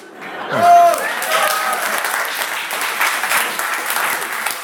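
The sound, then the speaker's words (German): An audience bursts into sustained applause, a dense wash of clapping that swells quickly and holds steady for several seconds, with a brief whistle or cheer rising near the start. “Und Publikum applaudiert.”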